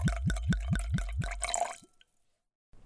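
Liquid being poured, like beer glugging from a bottle, with a quick run of rhythmic gurgling pulses that ends in a splashy trickle, fairly loud, then silence.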